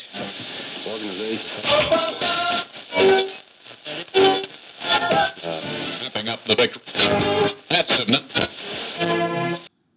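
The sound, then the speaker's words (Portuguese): Loud, crackling radio static hisses throughout, broken into bursts with garbled voice-like fragments and tones wavering through the noise, like a dial being tuned between stations. “Entra aí de novo o chiado de rádio.”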